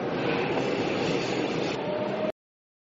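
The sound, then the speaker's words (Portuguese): A train runs along the rails with a steady, loud rumble and metallic rattle for a couple of seconds, then cuts off abruptly into silence. “Desembarque pelo lado esquerdo do trem.”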